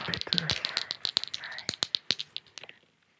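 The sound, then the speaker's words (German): Dice are rolled for a Dexterity saving throw in a tabletop role-playing game, rattling and clattering across a surface in a burst of sharp, irregular clicks that gradually space out and fade as they settle. A faint voice is briefly audible at the start. “Der eine ist eine 1, den würfel ich nochmal.”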